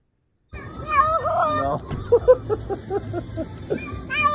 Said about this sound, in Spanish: Entonces el dueño, como una gracia, coño de tu madre, vale, metió al gato en la piscina. Vamos a escuchar el audio devastador de esta criatura.